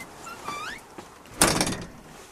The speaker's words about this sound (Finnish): Voiko tämän oven laittaa kiinni? Joo, laitetaan ihmeessä